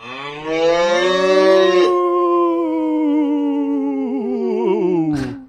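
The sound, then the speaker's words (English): A single long, loud cow moo drawn out for several seconds, its pitch wavering and trembling eerily toward the end before cutting off abruptly. No talking accompanies it. “Isn't that right, Ghost Cow?”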